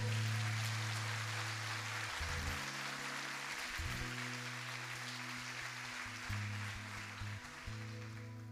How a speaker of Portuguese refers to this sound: E se for da tua vontade, aplauda ao Senhor.